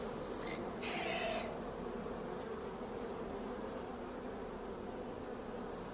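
A steady, droning buzz like a swarm of bees heard from a distance, continuous and fairly faint throughout, with a brief higher hiss near the start and no talking.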